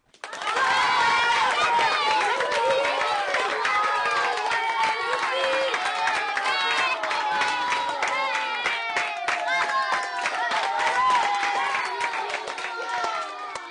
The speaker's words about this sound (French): Regardez tout là-bas, un village avec des gens qui applaudissent. Ça doit être le village de l'acclamation.